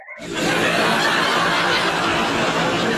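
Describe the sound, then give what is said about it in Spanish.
A sudden swell of loud canned audience laughter, a dense crowd of chuckles and guffaws that holds steady for a few seconds with no talking over it. “como no los escucho, pues yo puse mis risas aparte, porque ya estoy harto de que no veo gente.”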